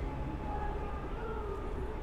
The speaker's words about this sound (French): Un autre avion qui passe, comme une toile filante dans la nuit.